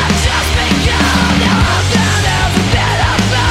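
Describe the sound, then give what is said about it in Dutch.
A harsh, screamed vocal rides over loud, dense punk music, with distorted guitars and pounding drums filling the whole stretch without a break. “klinkt een beetje als eh, … als hij hard gaat eh, schreeuwen”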